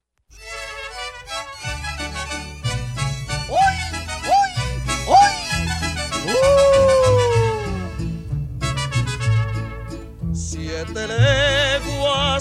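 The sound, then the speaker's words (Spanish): A corrido plays loudly with no one talking over it: a steady bouncing bass beat under a bright band melody, with a few long gliding, whistle-like notes partway through. “Pues vamos a escuchar este corrido para quitarnos de tristeza.”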